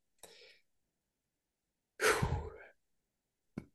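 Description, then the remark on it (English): A single fairly loud burp lasting under a second, with a soft breathy exhale just before it and a brief sharp click shortly after, in otherwise quiet surroundings. “Sorry, I had to burp. I heard that.”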